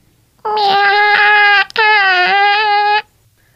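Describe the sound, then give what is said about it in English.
A person imitates a cat's "I need help wiping" meow: two long, drawn-out, whiny mews back to back with a brief catch between them, loud, with no other talking. “It's the I need help wiping meow.”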